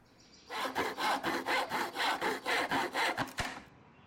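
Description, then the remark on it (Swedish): A hand saw cuts through wood in steady, rhythmic back-and-forth strokes, about a dozen rasping pulses with a bright, gritty texture, ending with a couple of sharp knocks, as Proppmet Karlsson does carpentry on small cottages in his yard. “På gården stod Proppmet Karlsson och snickrade de sötaste små stugor.”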